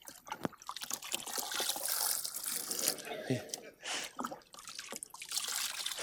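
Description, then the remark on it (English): Water trickles and splashes softly in a basin as feet are dipped in and washed, with scattered drips and small pours running unevenly for several seconds, fairly quiet. “And then he comes close, dips their feet in the water, and then he begins to wash them.”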